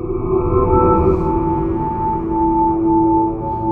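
A sustained wavetable synthesizer drone with steady tonal lines and a breathy, airy noise layer, loud and continuous for the whole stretch with no voices.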